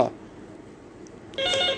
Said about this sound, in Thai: โทษทีเมื่อกี้เพื่อนโทรศัพท์มาเนาะ